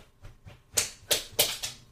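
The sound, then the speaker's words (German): A pet dog walking around in the background, its claws ticking on a hard floor in a short, uneven series of sharp clicks, a couple faint at first, then several louder ones, with no talking. “Mein Hund geht im ich Hintergrund.”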